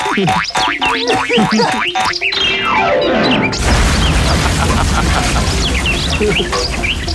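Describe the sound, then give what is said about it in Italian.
A cartoon fall: springy boings and a long descending whistle as something plummets, ending in a loud crashing impact to the ground with clattering debris. “si schianta al suolo facendosi un male della Madonna.”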